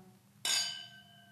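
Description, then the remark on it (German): A single bright clink of wine glasses touching in a toast, clear, its high ringing tone lingering and slowly fading for about a second. “Genau, erstmal Prost. Jetzt ein bisschen, oh, wir machen ja schon so ein bisschen Wein-ASMR immer.”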